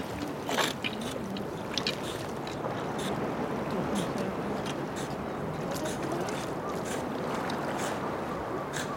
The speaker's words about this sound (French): la mer très calme remonte et bute sur une frise de rochers euh, compacte.